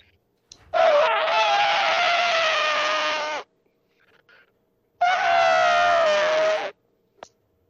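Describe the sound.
A person imitates an elephant trumpeting, putting an arm out like a trunk, with two long, loud, brassy blasts separated by a short pause. The first lasts almost three seconds and the second is a bit shorter, with no talking.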